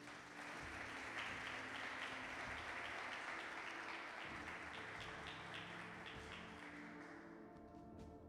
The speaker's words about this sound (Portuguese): Então dá uma salva de palmas ao Senhor.